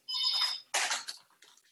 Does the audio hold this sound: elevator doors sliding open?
no